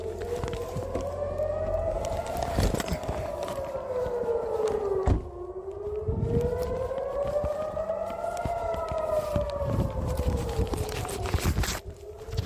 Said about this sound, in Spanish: Hay alarma. Alarma, alarma, alarma.